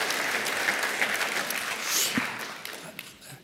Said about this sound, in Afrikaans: Geef hulle lekker 'n klap toe. Dankie julle.